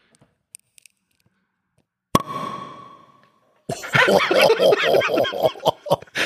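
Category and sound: household object, wine bottle being opened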